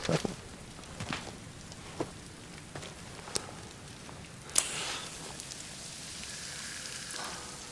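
Soft, steady rain hisses throughout with scattered drips tapping and one brief louder splash midway; no one speaks.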